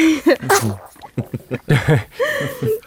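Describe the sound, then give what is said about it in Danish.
A 10-week-old baby girl, in a studio, gives a small, sharp sneeze, followed by several short squeaky snuffles and soft whimpering noises in quick succession. “jeg sidder med en lille baby, der nyser.”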